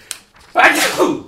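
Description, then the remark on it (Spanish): A single loud sneeze: a short sharp intake, a brief pause, then a forceful breathy burst lasting about half a second before trailing off. “perdón, perdón, perdón, voy a estornudar.”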